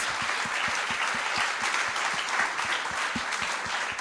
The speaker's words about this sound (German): Gebt dir mal einen herzlichen Applaus.